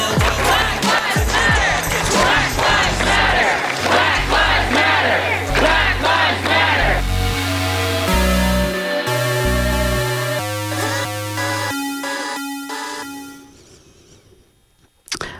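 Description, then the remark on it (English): A layered sound collage depicting dehumanizing racism against Black people in America: a loud crowd shouts and yells over low droning tones, then gives way to sustained horn-like chords that fade almost to silence before a brief closing burst. “You just heard a sound collage I created that describes the dehumanizing racism we've encountered in this country for the past 400 years.”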